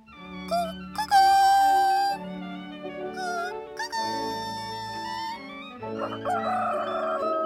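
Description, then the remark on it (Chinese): A rooster crows loudly several times in a row on the road to the town of Bremen, long strained cock-a-doodle-doo calls with bright rising and falling pitch, over steady low sustained tones underneath. “他们开心的前往不来梅城的时候，听到了鸡在叫。咦，好奇怪！通常大公鸡都是在清晨的时候才会啼叫啊。”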